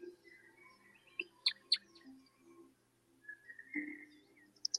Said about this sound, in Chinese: 竹林里面听到了鸟叫声